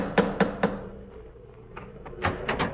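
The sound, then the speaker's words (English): The icicle-covered knocker of Dr. Watson's front door raps three times in a quick, even series during a January sleet storm, then a pause, and a few more sharper knocks follow, clanking with a resonant metallic ring. “Well, here we are once again, about to lift the knocker of Dr. Watson's familiar front door.”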